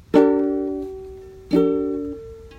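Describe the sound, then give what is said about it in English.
A three-note chord of A, C and E is struck twice, each time ringing out and slowly fading, with a third strike just beginning at the end. Clear, with no talking. “I, it's um, A, C, and E.”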